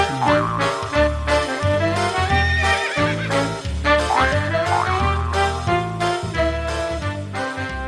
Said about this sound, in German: Moment, Moment, Trailer. Ach, der Trailer, natürlich.